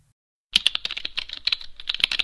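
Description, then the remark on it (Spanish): Rapid typing on an external computer keyboard into a text editor starts after a brief silence, a steady stream of crisp key clicks with no voices. “nosotros podemos crearlo de una manera muy sencilla, como yo se lo expliqué, en, en un editor de textos, utilizando un teclado externo”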